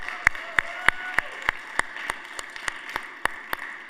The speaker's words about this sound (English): Let's give those guys a big thank you, big round of applause.